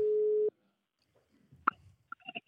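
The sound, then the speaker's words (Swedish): A single loud, steady electronic telephone tone sounds for about half a second, then cuts off into near silence broken by a few faint clicks and short bursts of noise. “Nu ringer det.”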